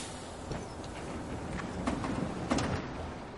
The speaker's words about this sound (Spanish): El autobús se detiene.